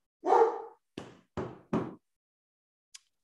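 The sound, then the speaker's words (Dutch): A dog barks four times in quick succession, one drawn-out bark followed by three shorter, sharp ones, then a faint click; no one speaks. “hond wordt even helemaal gek. Beer, hou eens op!”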